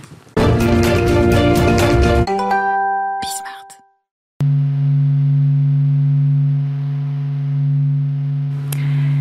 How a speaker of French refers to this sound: que vous entendez, eh bien c'est le son du soleil enregistré par la NASA il y a quelques années seulement.